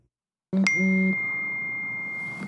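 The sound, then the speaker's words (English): A single phone notification chime sounds loud: a quick bright ding with a brief low tone underneath, then a clear ringing note that holds steady for nearly two seconds before cutting off. “Now, I'm the one who's not forgetting to turn off their phone.”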